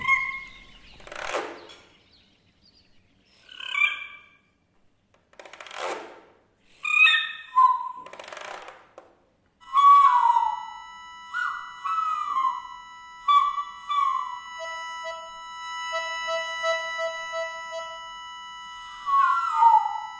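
A nightingale sings alone, alternating harsh rattling bursts and quick trills with clear, drawn-out whistled notes, its phrases separated by short pauses.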